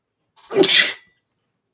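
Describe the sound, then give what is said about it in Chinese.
A single loud sneeze bursts out with a short inhaled buildup and a sharp, hissy explosive release, then silence follows with only a faint sound at the very end. “哦，打喷嚏是因为我没有说谎哦，不是真的。”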